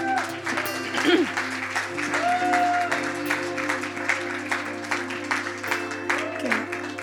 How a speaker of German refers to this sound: Und ich lade euch ein, euch drei jetzt auf die Bühne zu kommen. Und echt, vielleicht gleich mal einen Applaus dafür, dass ihr